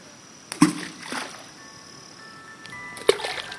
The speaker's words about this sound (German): Ich muss erstmal ein paar Steine ins Wasser schmeißen, weil das so schön klingt.